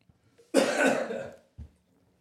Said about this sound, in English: Also, coughing and sniffing.